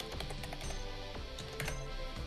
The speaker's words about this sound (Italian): Scusatemi se sentirete che inserisco il mio numero di telefono per avere questo dato magico